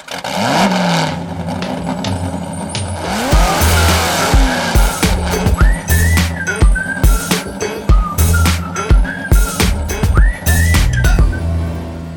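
A Porsche 917 racing car's engine roars loudly, revving hard through repeated sharp bursts while tires squeal and skid in high, whistling streaks. No one speaks.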